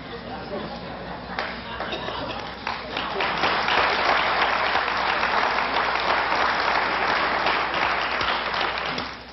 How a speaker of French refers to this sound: L'assemblée explose en rires et applaudissements.